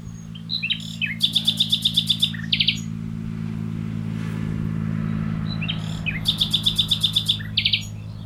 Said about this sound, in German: dass Nachtigallen werktags lauter singen als am Wochenende, weil werktags einfach mehr Autolärm ist und sie deshalb einfach, um das Ganze ein bisschen zu übertönen, lauter singen als am Wochenende, wo weniger Verkehr ist.